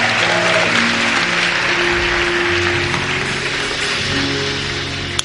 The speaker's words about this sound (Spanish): Dale un súper aplauso a Dios para empezar esta mañana.